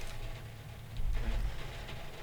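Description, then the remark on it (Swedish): Steady rain falls in a soft, continuous hiss with a low rumble underneath, fairly quiet and even throughout, with no voices. “Nu hör vi ju regnet här också så jag tänker att man kan nästan bara få lyssna på det.”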